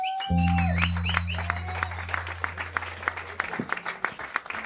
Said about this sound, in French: Nous avons un invité spécial pour célébrer la vie, car la vie est belle. Donc je demande d'applaudir